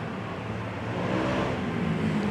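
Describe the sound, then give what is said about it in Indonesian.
A motorbike engine drones steadily outside a coffee shop, its broad rumble rising slightly as it seems to pass, with no talking over it. “mohon maaf ini agak berisik kan aduh ya ini FYI ini teman-teman kalau misalkan uh, ada suara motor ada suara apa kita tuh ini uh, recordnya atau ngobrolnya itu kita di di kedai kopi punya teman kita juga”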